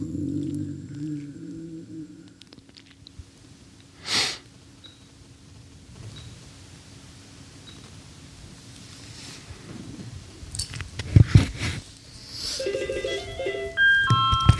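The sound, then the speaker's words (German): A steady electronic tone of an outgoing call ringing on a phone line as someone phones a man, fairly quiet, with scattered handling clicks and brief noises around it and no one talking. “Ich rufe ihn jetzt mal an.”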